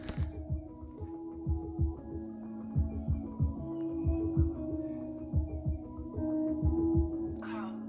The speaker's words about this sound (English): Oh, that sample sounds familiar. That club song.